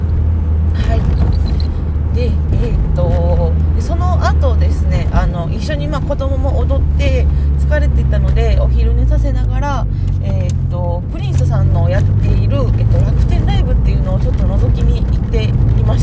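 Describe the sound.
Steady low rumble of car traffic runs through the whole stretch, fairly loud and continuous, with a person talking over it.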